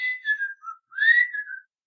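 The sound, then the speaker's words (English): Someone whistles a short, bouncy melodic phrase, the Andy Griffith theme, clear with no talking, the notes rising and falling in two quick bursts separated by a brief pause. “Someone okay, starts we- whistling the Andy Griffith's theme.”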